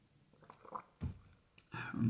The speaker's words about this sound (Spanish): Perdonad los que estáis escuchando el podcast, que he bebido un poco, un poco de agua.